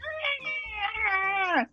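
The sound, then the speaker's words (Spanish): A person imitates a sick cat with one long, drawn-out wailing yowl that holds steady, then bends downward and cuts off sharply, loud with no other sounds. “Cuando golpeas a un gato o simplemente cuando el gato, el pobre gato está malito y empieza a cantar”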